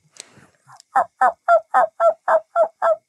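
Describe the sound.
A man's voice imitates a wild turkey gobble: a brief throaty lead-in, then a fast rolling series of about eight loud, evenly spaced gobbling bursts, clear.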